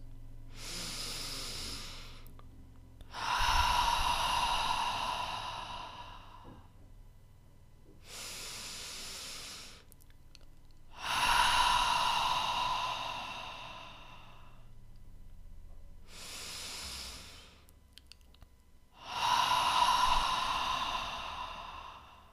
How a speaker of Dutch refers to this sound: Sluit dan je ogen en adem in jouw tempo drie keer in door je neus en uit door je mond.